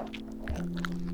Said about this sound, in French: C'est le son d'une limace qui glisse lentement sur une feuille de chêne au cœur de la forêt de Rambouillet.